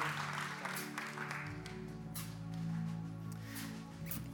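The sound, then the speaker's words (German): An audience applauds two boys in a steady, dense patter of many hands clapping, with a low, sustained hum running underneath throughout. “Applaus für diese zwei Jungs, die so mutig waren.”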